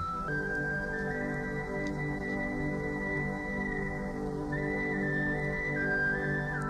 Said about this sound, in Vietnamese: anh ta đưa ống sáo lên thổi mọi người lắng nghe tiếng sáo đượm buồn như tiếng than khóc của một cuộc tình duyên dở lỡ